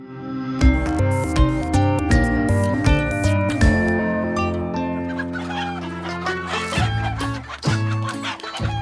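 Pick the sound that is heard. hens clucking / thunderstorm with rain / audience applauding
hens clucking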